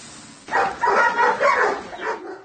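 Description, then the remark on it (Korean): A chorus of dozens of caged dogs at a dog breeding farm near Taepyeong Station and Moran Market in Seongnam, Gyeonggi Province, South Korea, late at night, barking and yelping over one another in quick overlapping bursts, loud, with a steady background hum underneath. “좁은 철창들마다 수십 마리의 개들이 갇혀 있습니다.”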